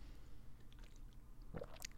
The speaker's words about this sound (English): Little water break. I got a blue bottle tumbler. Um, yeah, I got a blue bottle tumbler like a month ago and it's changed my life. I drink so much water, I probably pee 12 times a day.